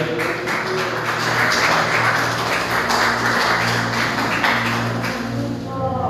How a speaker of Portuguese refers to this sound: Pode ser para aplaudindo e glorificando o nome do Senhor, amém.